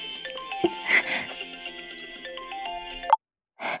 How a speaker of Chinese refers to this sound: 哎，妈妈的手机响了